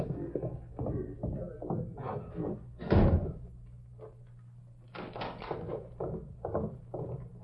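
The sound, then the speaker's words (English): Donkey or mule hooves clop across a hard floor in an uneven series of hollow knocks, fairly loud, with one heavier thump partway through, as the animal is driven out. “Now, let's get him out of here. Yeah. Get moving, you long-eared critter.”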